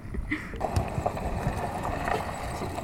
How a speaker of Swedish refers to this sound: Nu kommer en båt.